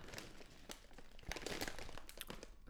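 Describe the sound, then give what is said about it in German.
A plastic bag crinkles and rustles as it is handled and opened, with a steady stream of irregular crackles and a few sharper crisp bursts, no voices present. “Jetzt bereite dich mental darauf vor, die Tüte zu öffnen.”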